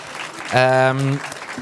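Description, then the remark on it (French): A live audience applauds the event's organizers in a brief, steady burst of clapping, with a loud sustained cheer or whoop rising over it for about half a second before the clapping carries on. “Euh, d'ailleurs, j'en profite pour saluer ceux qui nous ont invités, l'été du podcast, le Grand Contrôle et euh, Acast, qu'on peut applaudir d'ailleurs si, vous voulez bien.”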